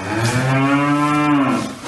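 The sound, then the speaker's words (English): A single long, loud moo from New Zealand cattle, with a deep steady harmonic drone that holds for nearly two seconds before tapering off. No one speaks. “And now, in a world first, New Zealand farmers will have to pay a tax for every one of the methane emitting 10 million cattle and 26 million sheep that roam the scenic countryside.”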